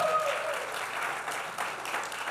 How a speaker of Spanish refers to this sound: Anybody married less than one year? ¿Quién se ha casado menos de un año? Newlyweds. Oh, look, we got okay, newlyweds everywhere. Fuerte aplauso también. Vamos, come on.